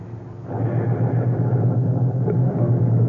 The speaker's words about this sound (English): I got out of the car. I stood on the sidewalk and watched him drive away.